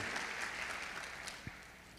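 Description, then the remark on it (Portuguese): A crowd claps steadily to applaud Jesus during a sermon, a dense wash of many hands applauding at an even level throughout, with no voices standing out. “Você pode aplaudir Jesus por causa disso?”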